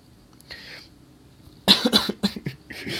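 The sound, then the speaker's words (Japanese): A harsh coughing fit: a faint breathy intake, then a rapid burst of several loud coughs in quick succession trailing off into a few more rasping hacks. No talking. “あ、咳込む瞬間一時停止を押そう思ったのに押されへんかった。”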